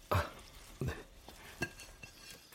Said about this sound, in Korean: 영경이 접시를 프라이팬의 뚜껑처럼 덮었다. 이렇게 하는 걸 봤거든요. 요리 프로에서.